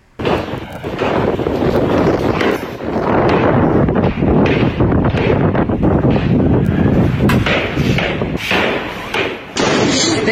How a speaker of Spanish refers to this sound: el pasado sábado, hubo una escena de terror, una balacera en plena playa Manzanillo. La gente estaba de lo más relajada, eh, tomando el sol, bañándose en la playa, cuando de pronto escuche usted cómo sonó esa playa de Acapulco.